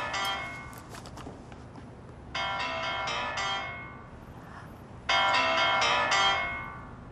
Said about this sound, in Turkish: Bu çalan kimin telefonu?